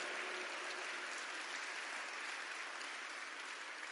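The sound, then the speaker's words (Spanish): A crowd applauds steadily, a dense wash of many hands clapping at an even level for several seconds without a break, with no voices over it. “Finalmente, denle un aplauso pues mientras cojo aire acá.”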